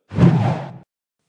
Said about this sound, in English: Yes, that whooshing noise you hear mean it's time for the fast something section.